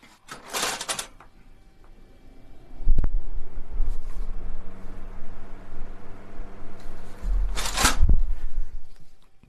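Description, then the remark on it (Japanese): A ventilation fan clicks on and its motor hum spins up into a steady whir of rushing air, with brief rustling bursts near the start and end. “それではまずはこちらの換気扇から当てていただきたいと思います、はい第1問はこちらです。”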